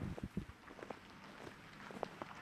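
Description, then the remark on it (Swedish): A man's footsteps crunching through wet, packed snow, a steady series of soft creaking crunches over a faint windy background, with no voices. “Han går i snö.”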